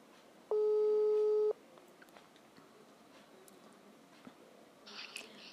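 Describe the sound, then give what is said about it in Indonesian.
A single one-second telephone ringing tone as an outgoing phone call is placed, a steady electronic beep that stands out clearly, followed by several seconds of quiet background hiss with faint small clicks and no talking. “kita telepon aja dulu ya”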